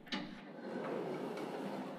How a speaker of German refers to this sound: Und dann, die Gondel, die Türe macht auf.